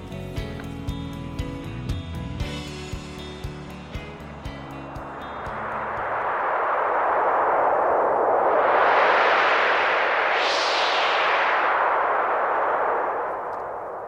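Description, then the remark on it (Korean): A few seconds of music fade out, then cold winter wind rushes in, a loud, steady whoosh that swells and howls upward in pitch before easing off slightly. “바람 소리가 차네요.”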